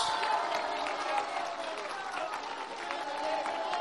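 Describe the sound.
A large crowd applauds steadily for a few seconds for migrant compatriots who send money home, a dense wash of many hands clapping at once with faint shouts and voices mixed in, holding an even loudness throughout.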